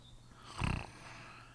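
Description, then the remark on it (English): A voice imitates a grandmother's snoring with one short, rough, guttural snort-like rasp lasting about a quarter second, moderately loud, followed by quiet. “Have I told you about Jamie Dunning's grandma snoring?”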